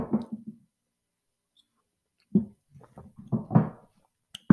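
Hollow, gurgling glugs of liquid as a small drink is poured from a bottle come in short uneven bursts, followed by a sharp glass clink near the end.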